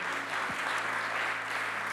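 An audience in Konstanz applauds steadily once more for Pastor Freimuth and Joanna, a dense wash of many hands clapping at an even level throughout, with no voices breaking through.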